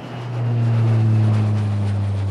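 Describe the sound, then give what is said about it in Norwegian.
A steady low engine drone like an airplane in flight, swelling in over the first half second and then holding loud and constant, with a faint airy hiss above it and no voices. “og nå tenker jeg at nå skal vi ta og sette oss på flyet, og så flyger vi en tur til Afrika.”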